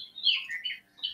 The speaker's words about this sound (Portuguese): É um relógio que eu tenho para aprender os cantos dos passarinhos. Ah, é? Esse aqui é, um... é esse aí é uma graúna.